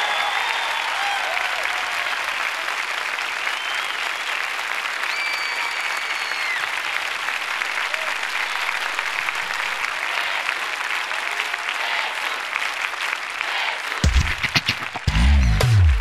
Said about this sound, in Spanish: Supera ese aplauso por 10 a 1 todavía. Te pones de pie le una gran porra a tu maestro.